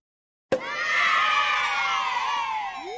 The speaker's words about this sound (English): I want my celebration cheer thing.